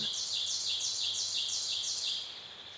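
Sharp, high-pitched birdsong repeats in a quick steady series of about six bright phrases over a faint airy hiss of soft wind, fading slightly at the end.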